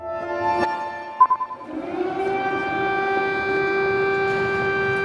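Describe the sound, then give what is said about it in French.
The first air raid sirens sound in Kyiv's central Maidan Square on 24 February 2022, as the Russians attack. A sustained, wailing siren rises and holds a steady drone, with a few brief thuds early on and a constant background hum. “The first air sirens at Kiev's central Maidan Square.”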